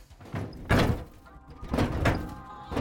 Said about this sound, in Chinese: 后方的车门被用力踢开